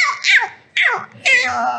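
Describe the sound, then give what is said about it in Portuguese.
A woman yaps like a small dog, a pinscher: three high-pitched, whiny barks in quick succession, each sliding downward in pitch, fairly loud with short gaps between. “Então eu sou a cachorrinha.”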